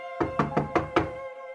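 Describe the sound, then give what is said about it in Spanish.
Five quick, evenly spaced knocks on a door, crisp, with a faint steady hum lingering underneath and no one speaking. “Como sea, compré el objeto y de hecho me olvidé de él hasta que alguien tocó a mi puerta.”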